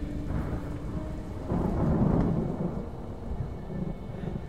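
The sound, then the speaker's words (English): A thunderstorm outside with wind, steady rain hissing throughout and a deep rumble of thunder swelling in the middle before easing off. Low, continuous and fairly loud, with no voices. “A storm was coming.”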